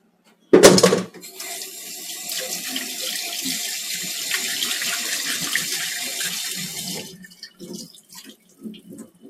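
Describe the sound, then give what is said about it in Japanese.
Tap water gushes steadily into a container to soak chicken and draw out its blood, used instead of milk, for several seconds after a sharp clatter at the start, a bright hissing stream that cuts off, leaving a few faint clinks and splashes. “本来なら牛乳に牛乳につけてこう血抜きしたいとこですけど牛乳はありまへんので水につけてこんな感じで鶏レモンを血抜きしたいと思います。”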